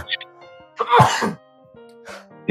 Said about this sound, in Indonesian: Iya, wah, gue bersin dua kali.